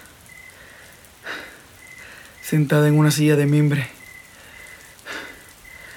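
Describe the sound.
Steady rain falls throughout as an even, hissing wash, with a few soft swells, while a woman speaks briefly over it in the middle.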